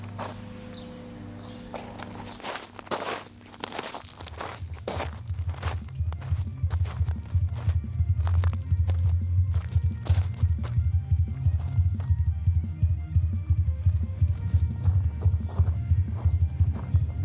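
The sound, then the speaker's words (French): A man walks on gravel, steady crunching footsteps in a regular rhythm of loud scraping steps that starts after a few seconds and continues to the end, with no talking. “Le mec marche. Moi aussi, j'adore écouter des bruits de gravier à la radio.”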